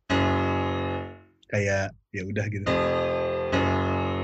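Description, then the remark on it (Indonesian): A clean Arturia software piano plugin, played without its distortion effect, rings out a chord that fades, a person speaks briefly, then sustained piano chords return with a fresh strike near the end. “kayak si piano ini sebenarnya plugin sih hey, ini Arturia oh Arturia terus gua EQ sama develop develop tuh kayak uh, distorsi audio destroyer dibilang coba kalau nggak ada bunyinya gini sih”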